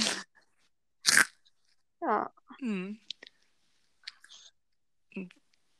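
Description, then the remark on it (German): Two loud, sharp crunches of a crisp snack being bitten, then softer chewing clicks and small crunches, with a person briefly murmuring and humming in between. “Knusper, Knusper, Knäuschen.”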